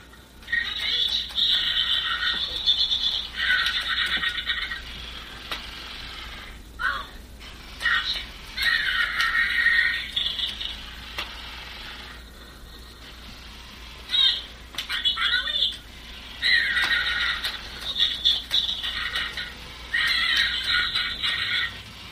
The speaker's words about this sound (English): He's an animated skeleton. He is. And he's moving around. You can hear him moving around. And we have him hanging right now. We have an archway in our dining room. And he's hanging here, essentially right between us.